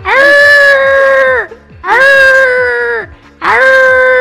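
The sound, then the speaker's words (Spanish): A person imitates a dog howling, three loud, drawn-out wailing howls, each about a second and a half long, holding a steady pitch before sagging slightly at the end, with brief pauses between. “Como no salió el perro aullando, la voy a interpretar.”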